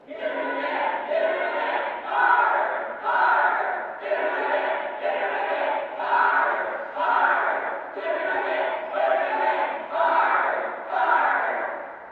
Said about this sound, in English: Someone in the upper deck began chanting. The contagion spread like wildfire across the upper deck, down to the bleachers and left field, and finally across the lower deck as the entire stadium thrummed with hope and bloodlust.